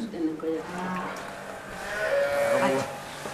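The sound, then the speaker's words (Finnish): Several cows low and moo in overlapping, drawn-out calls inside an echoing barn, one long moo rising clearly near the end, with a murmur of people talking in the background. “Mä katsoin, että tuossa ulkona on lehmiä.”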